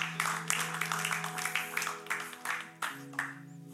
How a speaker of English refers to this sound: Come on, give God a clap offering.